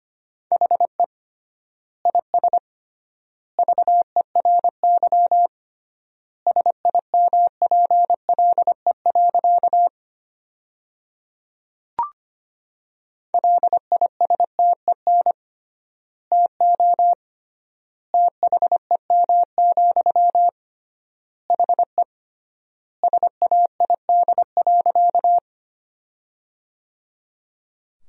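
A clear, steady beeping tone keyed on and off in quick dots and dashes, Morse code sent at 25 words per minute with triple word spacing, sentences from the top 400 words, in bursts with long pauses between words. No one speaks.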